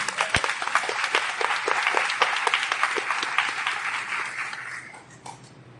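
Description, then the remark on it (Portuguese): A crowd applauds steadily for several seconds, a dense patter of many hands clapping that gradually thins and fades out toward the end. “Pode aplaudir é isso?”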